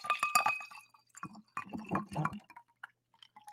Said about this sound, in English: Can I get a little glass clink for you? Mm, there it is. There it is.